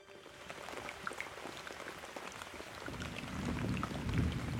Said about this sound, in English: Night fell on the wounded city of Fellhaven. Gentle rain trickled down from the darkened sky above